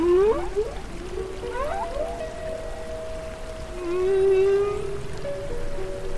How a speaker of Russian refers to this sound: Забавно, что мотив э, песен горбатых китов постоянно меняется. И самцы копируют эти изменения, и каждый сезон все горбачи примерно поют одну и ту же песню.